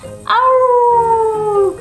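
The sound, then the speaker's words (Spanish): A person mimics a long, wavering howl, one sustained tone that slowly slides down in pitch, fairly loud, lasting over a second. “Entonces gruñeron, ah, aullaron”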